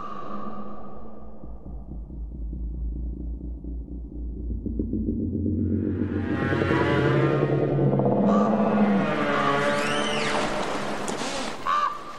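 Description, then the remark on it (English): A processed soundscape of the Carmanah Valley forest in British Columbia, a 1992 composition that manipulates space: a deep, throbbing rumble gives way to swelling layered drones and warbling, bird-like calls that rise and sweep, dense, with no voices. “But this is the Carmanah Valley in British Columbia, not really as it is, if we can say that.”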